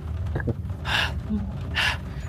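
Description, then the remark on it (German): A voice imitates heavy panting, with two loud, breathy gasps about a second apart over a low background hum. “Und keucht weiter.”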